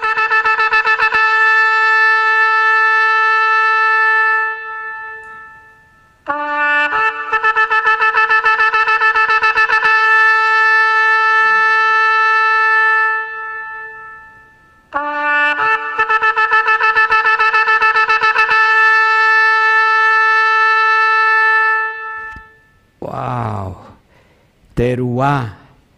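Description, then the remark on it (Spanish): A loud shofar sounds the teruah, the alarm call, in three long passages of nine or more very short blasts in rapid succession, its bright, brassy tone broken into quick staccato pulses. A brief voice follows at the end. “Son nueve o más sonidos muy breves y en, rápida sucesión, los cuales llevan un sonido de alarma o alerta.”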